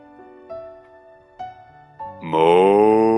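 A low, droning moo with faint, brief tonal bursts swells into a loud, drawn-out lowing that rises slightly in pitch and carries to the end.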